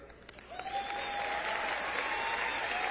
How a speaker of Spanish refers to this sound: Y este, he un aplauso a ver si sale.